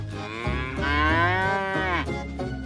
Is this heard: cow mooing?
yes